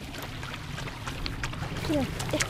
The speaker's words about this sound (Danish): Kommer vi forbi en lille bæk her.